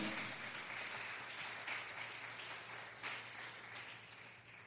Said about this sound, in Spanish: Y es más, suelte el aplauso, pero suelte para el Dios Todopoderoso.